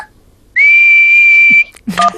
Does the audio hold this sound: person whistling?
yes